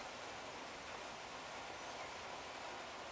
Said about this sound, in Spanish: En este momento llueve aquí, escuchas, en Betel. Cada gotita se va fundiendo en la tierra.